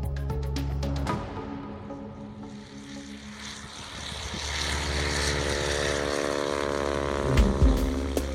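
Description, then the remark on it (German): A propeller skywriting plane drones overhead in 1939 over American cities, writing the words Pepsi Cola in the sky; its steady engine hum with strong low harmonics shifts in pitch as it passes, loud and continuous with no voices. “beauftragt er einen Piloten, die Worte Pepsi Cola mit seinem Flugzeug in den Himmel über amerikanischen Großstädten zu schreiben.”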